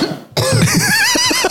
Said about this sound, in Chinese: 那个咳嗽